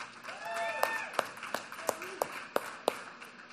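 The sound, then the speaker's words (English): An audience applauds, giving their pastor an extra round of applause: a dense wash of clapping with a few sharp, louder claps standing out at a steady rhythm, plus some faint cheering voices mixed in. “Um, so, I would like to give him an extra round of applause today for being our pastor.”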